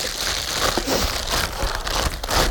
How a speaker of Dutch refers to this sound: Hier is een doosje. Wat zit daar dan in? bandjes en een plastic zak.